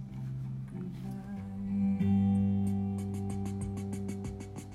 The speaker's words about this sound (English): That I added I added this dumb little uh, drum part at the end just to give the song a button. That sounds like this.